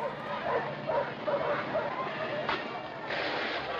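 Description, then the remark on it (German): Several dogs, set by police battalions on demonstrating children in Birmingham in May 1963, bark and yelp in short, repeated bursts amid a noisy, crowded background, with some indistinct voices mixed in. “Seine Bataillone hetzen Hunde auf sie und pferchen sie zu Tausenden in mobile Gefängniszellen.”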